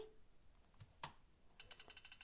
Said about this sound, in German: Und jetzt klicke ich einfach Space, also Leertaste. Das dreht sich. Das mache ich dreimal.